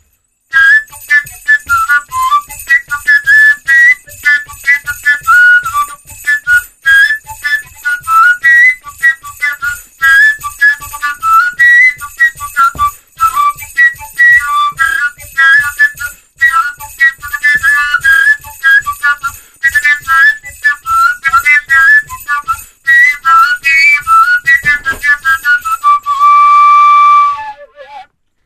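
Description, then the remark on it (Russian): A kalyuka, a Russian folk, northern, Finno-Ugric overtone flute, plays a lively, breathy melody that leaps between whistle-like overtones. It is loud, over a steady low rhythmic pulse, with no talking. “Вот такая вот руссконародная, северная, иноугорская Калюка,”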